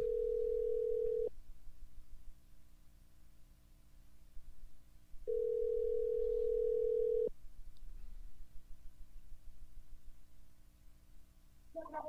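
A telephone call ringing on the line: two long, steady, low-pitched ringback tones, each lasting a second or two, separated by a few seconds of quiet line hiss, with a brief sound at the very end.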